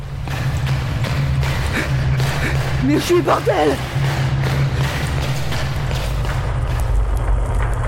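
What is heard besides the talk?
running footsteps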